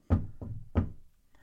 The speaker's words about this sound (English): Yeah. I'm going to knock on wood.